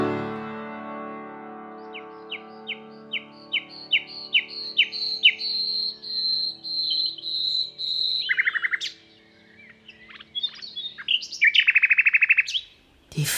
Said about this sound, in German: Vögel singen wie zuvor. Ach, gedankenlose Vögel. So viele gebrochene Herzen müssen die Vögel singen hören.